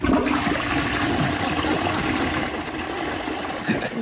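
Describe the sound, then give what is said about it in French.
A toilet flushes in one sustained, loud rush of water that churns steadily across the whole clip without easing off. “Il va dans les supermarchés, à un moment donné il a sa petite, euh, son petit besoin”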